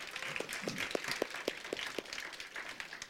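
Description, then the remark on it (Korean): A church audience breaks into applause for their teachers, a steady wash of many hands clapping with a few sharper individual claps standing out in an irregular rhythm, sustained at moderate loudness with no talking. “박수 한 번 칩시다 우리 선생님들한테.”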